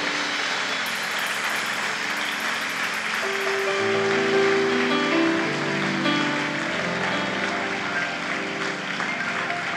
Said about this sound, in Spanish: Démosle otra ofrenda de palmas fuerte al Señor.